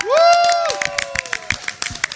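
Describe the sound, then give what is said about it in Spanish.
An audience applauds with a burst of quick, scattered claps, opening with a loud rising whoop or cheer that fades as the clapping carries on steadily. “Me uno al aplauso, eso, es para mí también.”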